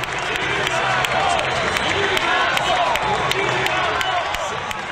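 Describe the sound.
A dense, roaring crowd of Brazilian fans cheers like a football crowd at a jumping competition, as a French athlete has a jump left, with layered shouting voices and scattered clapping forming a loud, steady wash of noise for the whole stretch.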